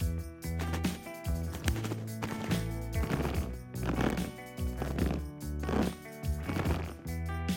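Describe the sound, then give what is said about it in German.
Deep creaking footsteps crunch through snow in a slow, steady rhythm, about six heavy steps. The creak track was duplicated and pitched down twelve semitones, layered with the quieter original, a lighter, higher creak kept as an accent. Loud, with no talking; no compressor or reverb used. “Also duplizierten wir die Spur und pitchten die duplizierte Spur um zwölf Halbtöne nach unten.”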